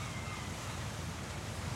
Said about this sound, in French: Mais là, Rien. Juste le froid et les cailloux. Entre le chahut du vent et les vagues, les gravillons crissent.